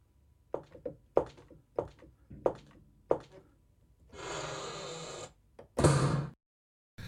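A small door is shut with a series of five short, evenly spaced thunks, followed by a rushing hiss and then one louder, harsher burst of noise. No one speaks.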